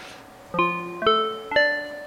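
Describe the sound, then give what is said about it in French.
Three bright, mallet-like synthesizer notes struck at an even pace, each ringing with bell-like overtones before fading, in the style of a synth preset imitating African wooden bars. “Alors on va prendre un son de preset que je n'utilise jamais. Mallette, ça veut dire African Bars, ça a l'air bien.”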